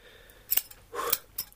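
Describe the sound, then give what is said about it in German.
Scissors snip a few times, with three quick crisp cuts in an uneven rhythm and brief quiet between them. “Schere?”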